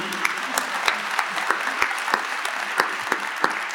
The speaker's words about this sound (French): Applaudissements pour Monsieur le maire François Grosdidier. Merci.